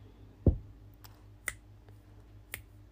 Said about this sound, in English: that's me snapping my fingers and hitting the sideboard here in my cabin.